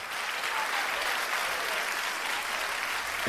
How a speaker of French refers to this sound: Je crois que nous pouvons l'applaudir bien fort.